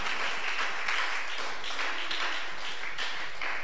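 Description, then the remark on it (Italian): Steady applause from a crowd, a dense wash of many hands clapping at an even, moderate loudness for the whole few seconds, with no voices standing out. “Stavo sentendo un applauso, è caduto qualcuno.”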